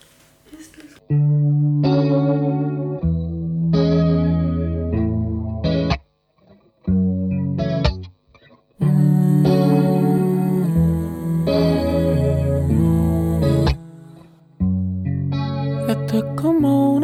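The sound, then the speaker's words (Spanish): A song opens with loud, effects-heavy music, its sustained tones thick with distortion and chorus shimmer, pausing briefly twice before continuing. No one speaks. “Ah, que es una canción que yo la siento mucho, siento que es muy para los signos de agua.”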